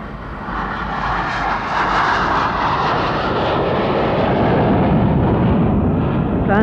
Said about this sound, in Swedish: Planet avgick mot Amsterdam vid halv tre-tiden på natten.